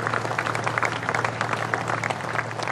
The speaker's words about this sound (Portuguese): Estes são os aplausos à passagem do carro que transporta uh, o caixão da rainha, um momento a que uh, milhares de pessoas uh, quiseram assistir este domingo.